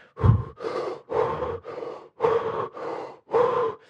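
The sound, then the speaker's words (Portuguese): A person performs a series of heavy, forceful, intense conscious breaths up close, about seven loud inhales and exhales in a steady rhythm with short pauses between, no talking. “e cada vez que saíamos começávamos a tal respiração bem yeah. intensa mesmo.”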